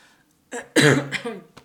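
A close, fairly loud run of throat clearing that breaks into a few harsh coughs, ending with one short sharp cough after a brief pause.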